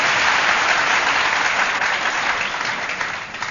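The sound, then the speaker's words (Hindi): Many people clap together during a kirtan devotional session in a dense, sustained burst of applause that stays steady and fairly loud for the whole stretch, tapering slightly near the end, with no voices standing out. “फिर बैठे बैठे ताली बजाए अथवा नाचते नाचते कीर्तन करे तो ये कीर्तन का लाभ लेकर साथ साथ में अम्बे मात की जय”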